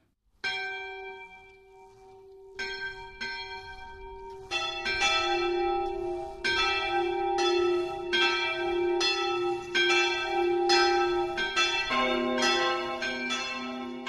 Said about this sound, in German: Heute läuten drei Glocken aus Buch im Landkreis Würzburg.